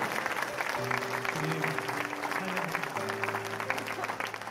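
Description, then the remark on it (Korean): An audience at the second day of the Torrance Good Church Lent revival claps loudly and steadily in applause of glory to God, a dense, continuous wash of applause lasting several seconds, with sustained low keyboard chords shifting underneath. “오늘도 변함없이 우리를 은혜의 자리로 인도하여 주신 살아계신 하나님 앞에 우리 한번 영광의 박수 한번 크게 올려드리길 원합니다.”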